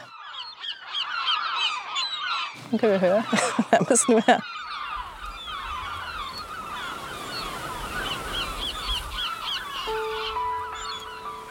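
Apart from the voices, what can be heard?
gulls crying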